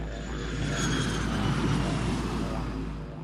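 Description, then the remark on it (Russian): An airplane carrying tourists flies past at the airport of a resort town 18 kilometres north of Uluru, with a loud, steady engine drone and deep rumble that swells slightly midway, then eases off toward the end. No voices. “Там даже есть аэропорт, который принимает самолеты с туристами каждый день.”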